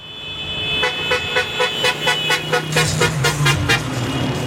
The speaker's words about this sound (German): Aber immer wieder fahren Mopeds und Autos mit Musik und Fahnen vorbei.